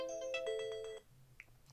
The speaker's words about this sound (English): I have all these alarms going off.